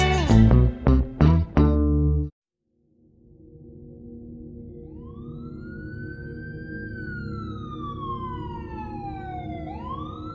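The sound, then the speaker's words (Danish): Wailing emergency sirens rise and fall over a low rumbling background in Vesterbro, Copenhagen, on 13 November 1996, several overlapping tones sweeping up and down, preceded by a short burst of loud harmonic stabs. “november 1996 vågnede beboerne på Vesterbro i København op til hylende sirener.”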